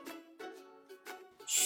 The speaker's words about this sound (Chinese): 嘘，乐迪。你听， 乐迪听了说：“ 好像是小鸟宝宝的声音。” 佩奇小声的说：“ 是的，我和瑞贝卡发现前面的树上有几只刚出生的小鸟，可爱极了。你看。”